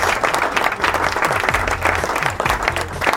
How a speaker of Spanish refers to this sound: Aplausos, por favor. Aplausos. Aplausos.